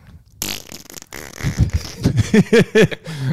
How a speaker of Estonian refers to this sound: peeretame lihtsalt või? peereta